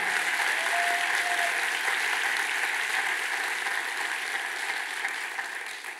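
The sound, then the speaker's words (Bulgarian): An audience applauds steadily, a dense wash of many hands clapping that holds for several seconds before tapering slightly at the end. “О, ако ръкопляскаш, ръкопляскай, като че това е твоя Исус.”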